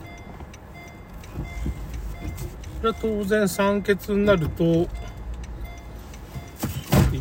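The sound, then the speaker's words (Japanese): A car rolls slowly into a parking lot, its low engine rumble steady beneath a man talking, with a brief knock near the end. “駐車場に入ってるんでねちょっとぶつけるとこもあるから”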